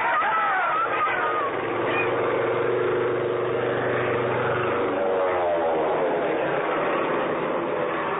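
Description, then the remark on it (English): A low propeller airplane drones loudly overhead, its steady engine roar shifting in pitch as it sweeps past, sustained for several seconds with no voices; it is making a low run down Main Street, dropping leaflets rather than bombs. “The plane was low making a run right down Main Street.”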